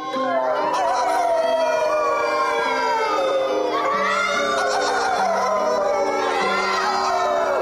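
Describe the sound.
Several people imitate wolf howls together, overlapping long wavering wails that rise and fall. The chorus is loud and keeps going without a break.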